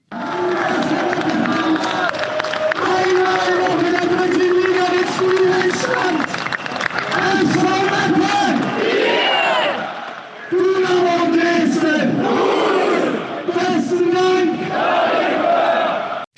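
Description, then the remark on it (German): A large crowd at the SV Meppen football stadium roars in loud, sustained chants, answering the amplified stadium announcer's calls in repeated bursts, shouting 'danke', 'bitte' and a made-up score, with a brief dip before the shouting surges back. “Tja, so schrecklich das normalerweise ist, wenn ein Stadionsprecher das Publikum dazu nötigt, danke, bitte und irgendeinen erfundenen Spielstand zu schreien, hier lassen wir mal Gnade vor Recht ergehen.”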